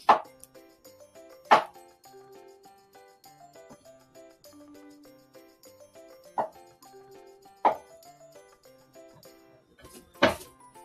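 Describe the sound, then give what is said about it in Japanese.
A knife cuts through ham onto a cutting board in five sharp, irregularly spaced knocks, over a soft steady tonal background with no talking. “で、えー、キュウリは切ったので、次ハム切ります。”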